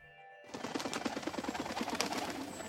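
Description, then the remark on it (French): A blue bird calls in a quick run of repeated chirping notes, steady in loudness, after a brief silent start, arriving at a castle. No one speaks. “Peu avant ses 16 ans, un oiseau bleu arrive au château.”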